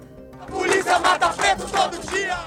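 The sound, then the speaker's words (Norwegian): A crowd of protesters at an anti-racism demonstration in Brazil chants in unison that police kill Black people every day, loud rhythmic bursts of many voices rising and falling in a steady cadence, with a dense wash of shouting throughout. “Politiet dreper svarte hver dag, roper demonstranter etter at en svart mann i forrige måned ble drept ved et supermarked i byen.”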